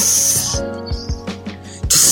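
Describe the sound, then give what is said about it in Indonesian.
A voice imitates the sizzle of a krupuk cracker when sambal sauce is put on it, with a sharp, breathy hiss, then pauses amid faint clicks and murmurs before another loud hissing burst at the end. “kasih sambal ada suaranya.”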